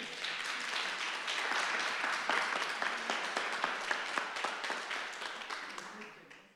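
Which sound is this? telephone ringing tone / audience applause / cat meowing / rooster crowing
audience applause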